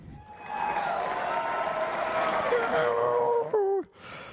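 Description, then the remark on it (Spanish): A burst of canned applause with steady clapping and crowd cheering, fairly loud and continuous, that ends abruptly as the sound warps downward and cuts off. “Sí, de aplausos y todo, porque de veras, mira.”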